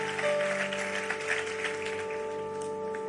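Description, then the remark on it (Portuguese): A church audience applauds God steadily, a dense continuous patter of many hands clapping, while sustained keyboard or organ tones hold underneath throughout. “Vamos aplaudir a Ele, vamos ficar em pé, vamos orar e vamos embora.”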